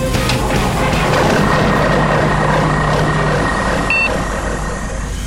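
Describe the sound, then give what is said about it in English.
The dark matter engines of the spaceship Betty start up for atmospheric flight with a loud, steady roaring rumble and a low droning hum, then a brief high electronic beep sounds near the end. “Alright, firing up dark matter engines now.”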